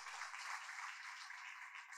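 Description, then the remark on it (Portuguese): A crowd applauds the Lord in a steady, dense wash of clapping that holds for the full two seconds, fairly soft, with no voices over it. “Aplaudo o Senhor. Não, tentei tem que aplaudir.”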